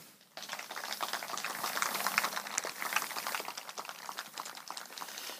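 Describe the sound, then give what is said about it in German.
A crowd at a church service breaks into steady applause after a brief moment of quiet, thanking the helpers who organized it, many hands clapping in a dense, even patter that continues without any talking. “Und ich denke, das ist auch mal einen Applaus wert.”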